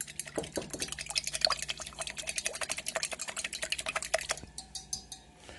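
A spoon stirs briskly as 12 grams of yeast are stirred into warm milk, giving rapid, regular clinks and soft swishes for several seconds before slowing to a few quieter taps. Moderately loud, with no talking.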